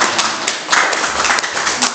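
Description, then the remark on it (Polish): A crowd at a school meeting applauds pupils as they are introduced: steady applause, a dense wash of many overlapping claps with no clear rhythm, fairly loud and sustained throughout with slight swells in intensity. “Brawa.”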